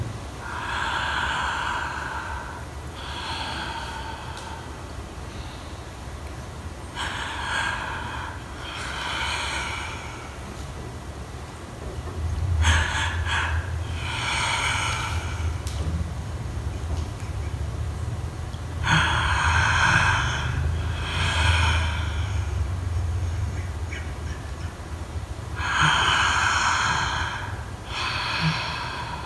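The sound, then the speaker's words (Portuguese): Heavy, rhythmic breathing with sharp gasping inhales and forceful exhales repeating every couple of seconds over a low rumbling background. No one speaks. “Deixa vir, mas mantém a respiração, deixa que isso fique longo demais, então você se perde, tá?”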